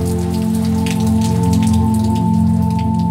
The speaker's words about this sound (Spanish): Yo estaba llegando a las afueras de Jaén cuando se cayó un aguacero y tuve que buscar un refugio dentro de una pequeña hospedaje.